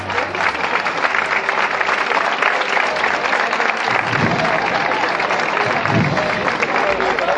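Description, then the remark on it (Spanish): A crowd breaks into sustained, dense applause that stays loud and steady throughout, with scattered voices mixed in and a couple of low thuds partway through as a procession float is lifted in Carrera de Jesús, by the side walls of the Cathedral. “Pues sí, habéis podido escuchar la levantada que se acaba de producir en Carrera de Jesús, justo donde en la esquina de, los muros del lateral de la Santa Iglesia Catedral”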